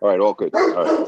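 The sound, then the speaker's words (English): A dog barks in the background while a person speaks briefly over it, the barking blending into the continuous talk. “I apologize for the dog in the background.”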